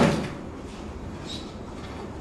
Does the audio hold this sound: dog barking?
no